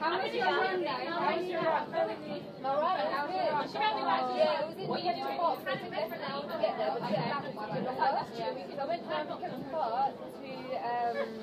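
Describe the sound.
Lively chatter of a hen party fills a train carriage travelling from Gatwick to Farringdon in London, several women's voices talking and laughing over one another, a steady dense babble with no pauses.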